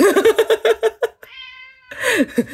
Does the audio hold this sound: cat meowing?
yes